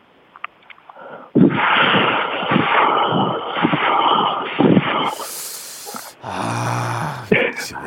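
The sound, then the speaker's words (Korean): A person imitates the sound of cicadas in the mountains in summer with the voice, making a long, loud, raspy buzzing drone that shifts into a hissing whine and ends in a pulsing, trilling buzz, alone. “여름철에 산속 매미래”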